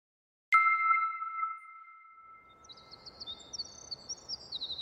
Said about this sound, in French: L'oiseau que vous entendez là, c'est un troglodyte mignon. C'est un de mes oiseaux préférés. C'est une toute petite boule de plumes qui sautille souvent dans le jardin à la recherche de petits invertébrés.